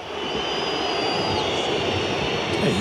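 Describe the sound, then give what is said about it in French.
A huge football stadium crowd at Lyon's half-time roars steadily, with thin, piercing whistles of disapproval from the whole stadium, not only supporter groups, rising and sliding above the din, loud and continuous throughout. “Et c'est clair, et c'est net, les sifflets de l'ensemble du stade, hein, pas seulement des groupes de supporters.”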